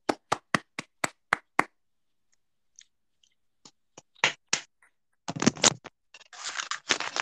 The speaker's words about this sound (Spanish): Un gran aplauso.